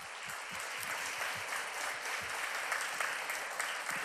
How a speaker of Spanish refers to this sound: ¿Cuánto le da un aplauso al Señor? Un aplauso fuerte, hermanos.